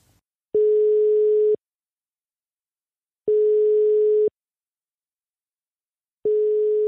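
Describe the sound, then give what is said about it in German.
A phone ringback tone of an outgoing call: three steady, mid-pitched beeps, each lasting about a second, separated by pauses of silence. No one speaks. “Ja, dann rufen wir an.”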